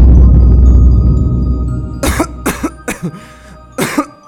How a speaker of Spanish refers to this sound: ¿Qué está pasando, mi hijo? Esa tos no me gusta para nada.